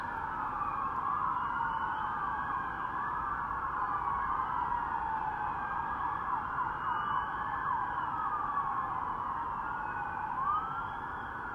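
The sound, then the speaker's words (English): Police sirens wail continuously during a chase, several overlapping rising and falling tones sweeping together, loud and close over a low rumble of traffic, with no one speaking. “they're chasing.”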